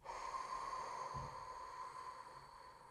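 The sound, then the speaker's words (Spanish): A long, forceful exhale blown out steadily for a few seconds after an inhale, an airy rushing breath with a brief low puff partway through. No one speaks. “Sopla.”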